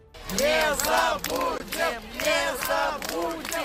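A large crowd of Muscovites at Alexei Navalny's funeral by an Orthodox church in Moscow shouts at Putin in unison, voices rising together in loud, rhythmic bursts of chanting that repeat several times without pause, raw and strained over a constant roar of many people.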